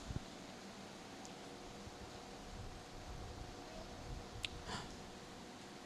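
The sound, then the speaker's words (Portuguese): An electric fan runs steadily with a constant airy whir and a faint tonal hum. A couple of soft bumps and brief rustles sit on top, with no one talking. “Diminui esse ventilador para mim, por favor.”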